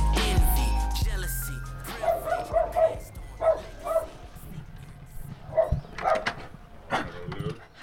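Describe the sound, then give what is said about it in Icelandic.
A dog barks repeatedly in short bursts, a string of sharp, loud woofs with brief pauses between them over a low background hum. “Hæ, hæ, ok, þetta hljómaði svo miklu starri hundi.”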